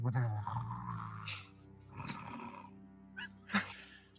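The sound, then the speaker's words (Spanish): A man's voice mimics a goblin snoring with low, rumbling, throaty sounds and a few harsher snorting bursts, fairly loud over about four seconds. “hasta que eventualmente la gran papada de este goblin em, se cayó un poco y empezó a, a, a, roncar, pero aún roncando, de repente escuchaban como, cuidado.”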